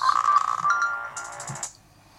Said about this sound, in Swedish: Apropå, nu är det någon som ringer.